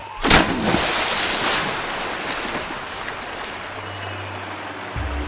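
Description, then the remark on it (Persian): Fast-flowing river water roars steadily as it keeps striking flat rocks, opening with a loud splashing surge before settling into a continuous churning wash, with a low rumble near the end. “سرعت رود زیاد بود و مدام به تخت سنگ ها برمیخورد”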